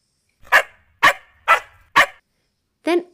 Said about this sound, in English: Suddenly, Jalebi, who was sitting quietly until now, started barking at Miss Kim's cat Ocean.